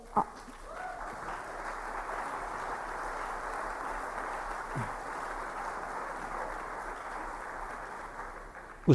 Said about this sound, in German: Ich notiere zweiter Applaus ja.